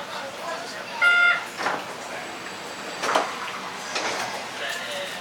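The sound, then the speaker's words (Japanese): Sliding monorail doors on the left side open at Heiwa-dori station, in front of the Uomachi shopping street, with a series of airy pneumatic whooshes and hisses over a steady cabin rumble, with a brief tonal sound and muffled voices in the background. “平和通り平和通り魚町商店街前ですお忘れ物のないようお降りください降り口は左側です開くドアにご注意ください”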